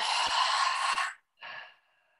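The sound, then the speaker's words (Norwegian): A long, breathy exhale through an open mouth during a breathing exercise, after breathing in through the nose and holding, fairly loud, lasting about a second, followed by a shorter, softer trailing breath. No one speaks. “Hold, og pust ut med en åpen munn.”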